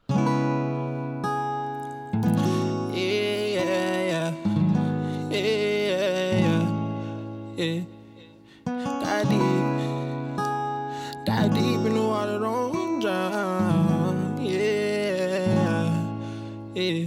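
A hip-hop instrumental intro plays loud, with heavy bass notes shifting every couple of seconds under layered melodic synths, steady and continuous with no vocals.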